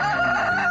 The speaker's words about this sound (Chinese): 咕咕咕咕，公鸡开始啼叫了。